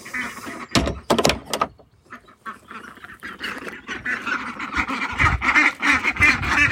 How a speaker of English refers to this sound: These ducks They aren't half funny. Still quite nervy. But they will get there.